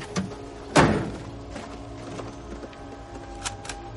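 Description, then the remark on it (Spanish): A single heavy truck door slams shut with a solid metallic thud that rings briefly. A faint click comes before it and a couple of light knocks follow over a low background hum. “Coge un fusil y cierra una puerta del camión.”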